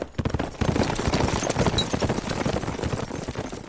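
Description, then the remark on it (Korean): A dense, continuous crackle of matchlock musket fire from Japanese troops on castle walls hung with red and white flags during a siege, many shots overlapping in a ragged volley that keeps up loudly across the whole stretch, with no voices heard. “장군, 외놈들이 성곽위에 붉은 깃발과 흰 깃발을 내걸고서 조총 사격을 시작했습니다.”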